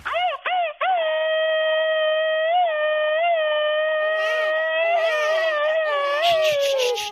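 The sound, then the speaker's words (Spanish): A baby girl, woken by a loud shout, cries loudly: two short sobbing bursts, then one long, unbroken high-pitched wail that wavers slightly in pitch and rises near the end. No one talks over it. “Ya, ya, ya, con ese grito ametralladora despertaste a la bebé de la familia.”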